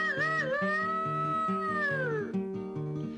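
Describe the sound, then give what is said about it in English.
A drawn-out, wavering rooster crow, likely a voice imitating it, sung over a steady, bouncing musical accompaniment. The call is loud, sliding downward before fading out. “Well, I had me a rooster, the rooster pleased me, and I fed that rooster under yonder tree, and the rooster went roo”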